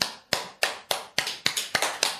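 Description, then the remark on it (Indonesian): A few hands clapping in a steady rhythm, about eight sharp, bright claps with quick decays, fairly loud and with no talking over them. “Oke, tepuk tangan dulu.”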